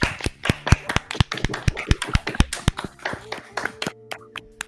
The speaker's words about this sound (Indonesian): Tepuk tangan.